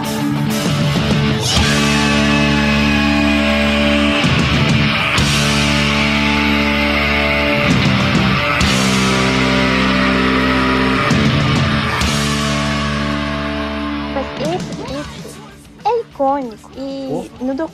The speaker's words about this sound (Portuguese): Solta o som pro gritão